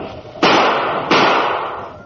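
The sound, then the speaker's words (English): Two loud, sharp gunshots fire about two-thirds of a second apart at a French officer on horseback, hitting him so he falls from his horse; each a sudden crack followed by a long, hissing decay that lingers until the next. “You hit him. He fell from his horse.”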